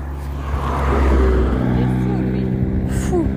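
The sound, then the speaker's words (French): A large truck rumbles past on a road, its deep, droning engine swelling loudly and then easing off slightly, with faint voices in the background. “Oh, il y a un gros, un gros camion.”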